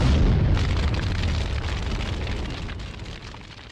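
A single massive MOAB bomb explosion sound effect blasts in at full volume, heavy with deep bass, then trails off into a long crackling, rumbling decay. No voices are heard.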